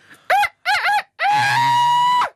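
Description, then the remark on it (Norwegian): A person loudly imitates a rooster's crow: two quick, warbling syllables followed by a long, strained, held note that drops off at the end, with nothing else around it. “ja, så kan du tenke deg den syke, syke lyden av en hane.”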